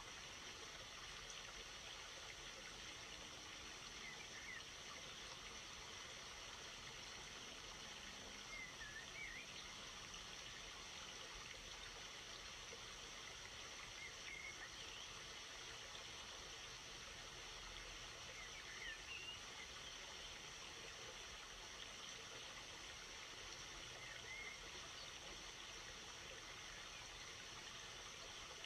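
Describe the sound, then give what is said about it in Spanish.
A river stream flows steadily with a constant, rushing babble that never lets up, heard alone without voices, with a few faint chirps drifting in now and then. “Entrégale al río todo lo que crees que controlas.”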